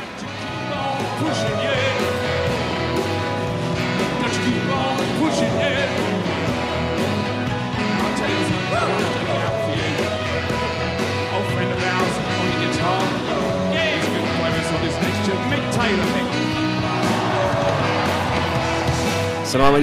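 A live rock band plays loudly and continuously, with dense guitars, pounding drums and a crowd-filled festival ambience throughout, no pauses or quiet moments.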